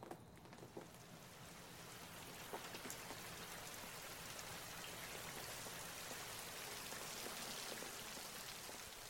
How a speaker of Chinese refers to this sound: 慢慢的，落下了一滴、两滴的雨水，越来越大，越来越大。接着下起了倾盆大雨。